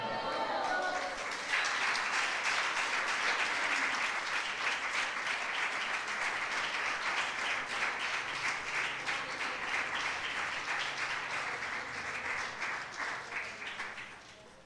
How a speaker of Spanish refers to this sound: Por favor, diga gloria a Dios y déle un aplauso a él.